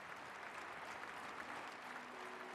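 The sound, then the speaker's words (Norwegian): Sustained obligatory applause for Putin from a large arena audience in Russia: dense, steady clapping blurred into a continuous wash of sound, with no single claps standing out and no pauses or swells. “Den obligatoriske applausen i manesjen gir Putin den støtten han vil ha.”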